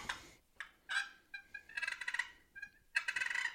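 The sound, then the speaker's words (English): Soft, rolling turkey purrs, a feeding call, made by grinding the lid of a box call: several fluttering, trilling bursts with high scratchy overtones, separated by brief pauses, with no one speaking. “And the hardest to do on a box call is purr.”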